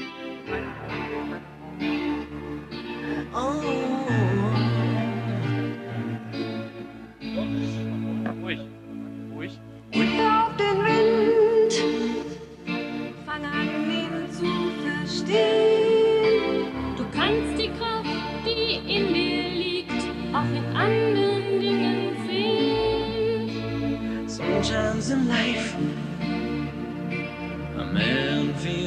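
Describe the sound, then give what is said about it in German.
An upbeat pop song, a motivational single recorded by footballers' wives for their husbands, plays loud and continuous, with steady beat, bass and bright layered vocals sung by the group of women throughout. “Und sie haben äh, in den Jahren, die du äh, zitierst, unter anderem mal, äh, haben die Spielerfrauen doch mal eine Single aufgenommen äh, als Mutmachsong für, für ihre Männer.”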